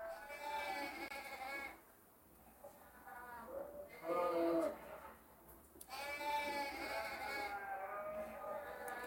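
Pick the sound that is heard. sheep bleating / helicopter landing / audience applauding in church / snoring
sheep bleating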